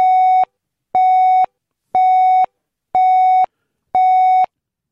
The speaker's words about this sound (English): I reckon they should bring back the news pips, actually, to be honest.